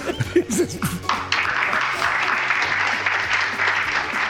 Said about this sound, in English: Was that a laugh? Was that a clap?